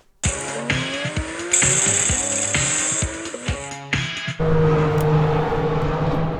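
Loud racing engines roar past, revving up and down through gear changes with shifting pitch, followed by a steady high engine drone as another car speeds by on the track during a trackday at Mantorp Park.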